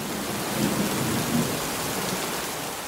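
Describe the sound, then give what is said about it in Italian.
Low, muffled thunder rolls in the distance beneath steady rainfall, with a couple of dull swells of rumbling and no voices present. “Da lontano continuava a udire sordi boati di tuono.”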